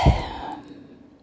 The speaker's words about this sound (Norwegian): Ta et dypt pust.